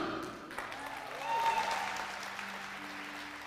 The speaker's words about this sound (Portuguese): De vez em quando você tem que levantar dessa cadeira, você tem que dar um glória a Deus, você tem que dar um aplauso, você tem que fazer alguma coisa, meu irmão.